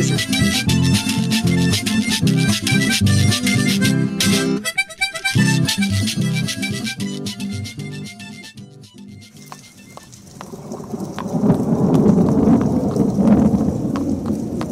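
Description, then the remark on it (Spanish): Music plays for several seconds, then gives way to a steady hiss of heavy rain with a deep, swelling roll of thunder rumbling up loudly near the end. “En las noches de tormenta, en muchos pueblos de Antioquia, la gente se cuida de encontrarse con la mula de tres patas.”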